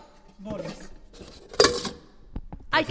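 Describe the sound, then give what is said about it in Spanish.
Bowls and dishes, large and small bowls including aluminium ones, clatter and clink in the large kitchen of a cooking school in a few separate bursts, one sharp knock standing out, with quiet speech-like sounds in between, fairly loud. “Recipientes de todo tipo. Sí, boles grandes, boles pequeños para estos poner.”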